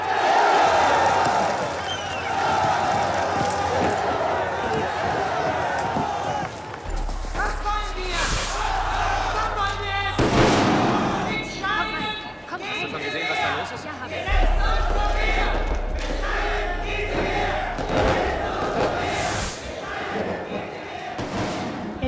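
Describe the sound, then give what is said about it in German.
A loud crowd shouts and clamors continuously during street battles in the city of Cochabamba, with heavy thuds and bangs breaking through and sharp bursts of noise. “Die Straßenschlachten bringen die Stadt immer mehr in den Ausnahmezustand.”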